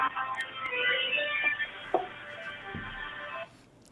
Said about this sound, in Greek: Με συγχωρείτε δυστυχώ το τηλέφωνο